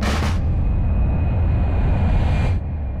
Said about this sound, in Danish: Vi sidder i toget. Foran mig, der har jeg den smukkeste udsigt.